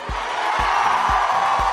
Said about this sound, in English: Wait, are those people cheering for climate change?